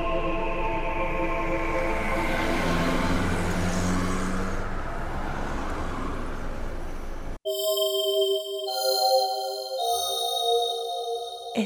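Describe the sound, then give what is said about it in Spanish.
Busy city street traffic roars steadily, with engines rumbling and pitched tones sliding past, before cutting abruptly to a sparse electronic tune with no traffic. “La figura de aquellas dos mujeres se perdió en el tráfico de la ciudad.”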